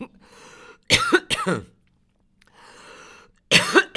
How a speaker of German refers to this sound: Warum ich das immer habe mit dem Husten? Ich bin immer so aufgeregt. Nein, Quatsch.